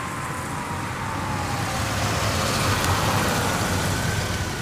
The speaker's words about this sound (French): Le bruit de moteur se fit alors entendre et une voiture arriva sur le parking du fort.